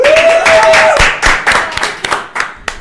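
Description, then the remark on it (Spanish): A burst of audience applause welcoming a guest, many hands clapping densely at first, then thinning into scattered individual claps as it fades, with a brief rising whistle early on. “un aplauso para él.”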